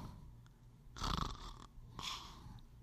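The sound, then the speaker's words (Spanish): A person imitates snoring with their voice: two rasping, drawn-out snores about a second apart, fairly loud, with no talking. “Y el problema no es ese, usted empieza a roncar.”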